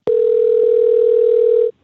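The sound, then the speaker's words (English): A steady, loud telephone tone sounds as a phone call connects, holding at a single pitch for about a second and a half, starting with a click and cutting off abruptly, with no voices. “And now we have a phone call”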